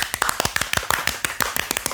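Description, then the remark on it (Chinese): A brief burst of hand clapping given in honour of all social workers: many quick, sharp claps at a steady, slightly uneven pace, fairly loud, with no voices over them. “完全 respect 所有社工师，给他们一个掌声。”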